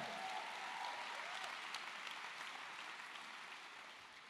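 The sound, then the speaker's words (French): The Extravagance Church audience applauds what God will do, a steady, dense wash of many hands clapping at once that holds level throughout and eases off slightly toward the end. “Et l'Église extravagance dit Amen et applaudit ce que Dieu va faire.”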